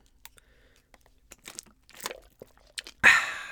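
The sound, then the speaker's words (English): Sips and a swallow of water, with quiet wet mouth clicks scattered throughout, then a short, louder crackling burst at the very end. No one speaks. “take a sip of water there.”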